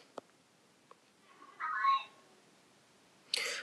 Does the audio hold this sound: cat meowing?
yes